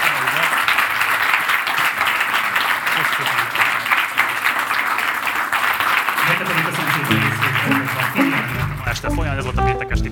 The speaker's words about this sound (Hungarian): Lovasi András, nagyon szépen köszönöm, hogy itt voltál. Szeretnék kérni egy nagy tapsot az Andrásnak.